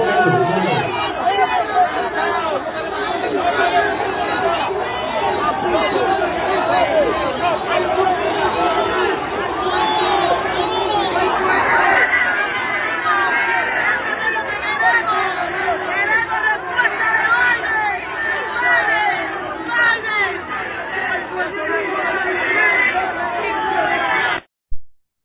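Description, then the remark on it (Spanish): Dense crowd chatter at a music concert: many overlapping voices blend into a steady, loud babble that holds for about twenty-four seconds before cutting off abruptly. “Eh, un concierto un concierto de música y esta, y esta persona se indigna por ver eh, este concierto y dice, no, no estamos para música.”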